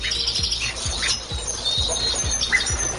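Many small birds chirp and twitter together in a busy, continuous chorus, with bright high calls overlapping. A soft, regular low thumping runs underneath.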